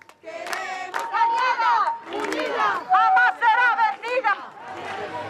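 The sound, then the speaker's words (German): A crowd of protesters in Madrid, without electricity for months, loudly shouting the slogan 'Light is not a luxury but a right' together in rhythmic bursts, voices overlapping, with brief pauses between chants. “Licht ist kein Luxus, sondern ein Recht, schreien sie.”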